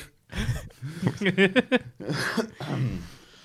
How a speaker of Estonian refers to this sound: ma, ma köhin nii palju, sest noh, mul ei ole koroonat, aga ma olen suitsetaja. ei, kõik on cool ma, kui ma naeran, siis ma köhin, mul tekib röga hästi palju kurku.